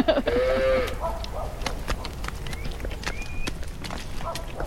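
Dairy cows being fetched along a farm path: a short bellowing call up front, then irregular hoof clops and scuffing steps, with a brief whistle-like sound in the background.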